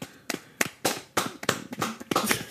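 Hands clap about eight or nine times in a quick, slightly uneven rhythm, each clap a sharp, bright smack that rings briefly before the next. No one speaks.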